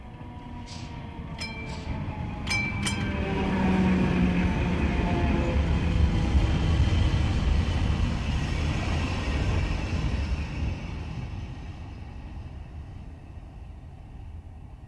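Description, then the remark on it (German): A tram rolls steadily through Berlin at evening dusk, on the way to a themed restaurant between Friedrichstraße and Leipziger Straße, with a low rumbling drone and squealing, whining tones from the rails, a few sharp metallic clicks early on, swelling louder in the middle then fading slightly. “Ihr seid mit der Straßenbahn auf dem Weg in das Themenrestaurant Mokka Efti, welches zwischen Friedrichstraße und Leipziger Straße gelegen ist.”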